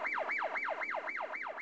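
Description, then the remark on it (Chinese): Ambulance and police car sirens yelp in a fast, continuous rise-and-fall, each sweep repeating about four times a second at a steady, piercing level, with no voices, as the vehicles arrive at a museum almost at the same time. “救护车和警车几乎同时赶到了博物馆。”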